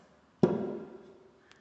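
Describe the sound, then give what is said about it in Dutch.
A small shop display opens with one sharp clack that rings and fades over about half a second, followed by a faint light tick. “En dit is het geluid van hoe het open gaat.”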